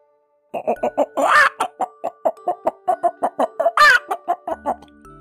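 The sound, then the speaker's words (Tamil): A voice imitates a hen clucking, as the hen calling to its friends in hen language, a rapid series of short, evenly spaced clucks with two higher, drawn-out squawks mixed in, loud, with no other talk. “அப்படின்னு கோழியோட பாஷையில தன்னோட நண்பர்களை பார்த்து நண்பர்களே எனக்கு சில கோதுமை விதைகள் கிடைச்சிருக்கு வாங்க அத போய் நம்ம விதைக்கலாம் அப்படின்னு சொல்லிச்சு”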